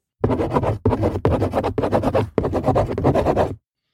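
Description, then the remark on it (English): A pencil scratches briskly across paper in a series of about six quick strokes with short pauses between them, fairly loud, with no other sounds. “Now get out your pencil and paper.”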